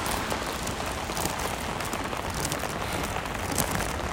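heavy rain falling

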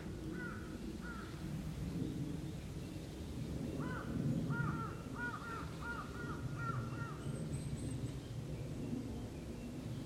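birds chirping outdoors

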